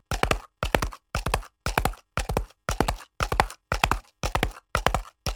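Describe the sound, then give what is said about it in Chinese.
Horse hoofbeats clop in a steady, even rhythm, about eleven solid strikes roughly half a second apart, moderately loud with no voices over them; the hoofbeats of the horse from the poem line "my clattering hoofbeats are a beautiful mistake", played in an online literature course. “在李俊东的借东风线上文学课程里，达达的马蹄不会只是轻描淡写的带过去，而是能够真实的听到马蹄声，而且不止一种马蹄声。”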